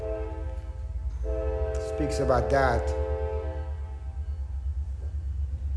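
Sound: train passing by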